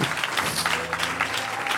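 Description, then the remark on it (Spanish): An audience applauds, a dense, steady wash of many hands clapping at once that stays loud and even throughout, with a faint low tone sustained underneath. “Un aplauso al que vive.”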